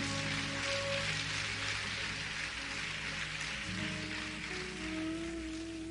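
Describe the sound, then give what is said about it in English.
An audience at a church worship service gives the pastor a hand clap of praise, clapping steadily for the full six seconds, a dense, even wash of many hands with no break, while sustained keyboard or organ chords hum beneath; no one speaks. “Give your pastor a hand clap of praise this morning.”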